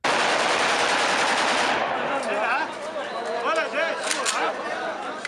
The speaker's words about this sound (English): Now that guy had the look on his face like nobody asked him to shoot any birds or was preparing for him to shoot any birds and he shot some birds and was really very impressed with himself.